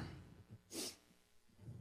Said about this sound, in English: I am closing that door.